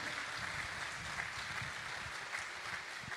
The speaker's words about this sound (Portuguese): queria que a igreja aplaudisse pela vida dos meus pais.